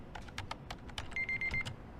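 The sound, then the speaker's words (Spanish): Rapid typing on a computer keyboard with a braille display while someone programs, with irregular clusters of crisp key clicks. A brief high electronic tone sounds midway through, with the typing continuing around it. “escribiendo en el teclado con línea braille.”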